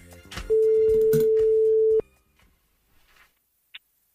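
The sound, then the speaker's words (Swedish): A telephone ringing tone on an outgoing call: one loud, steady electronic beep lasting about a second and a half, followed by near silence with faint rustling and a small click. “Precis, så vi ringde en.”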